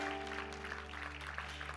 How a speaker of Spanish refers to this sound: Un aplauso a los legendarios por ahí, a los servidores que vienen por ahí. Esa gente linda venía sirviendo.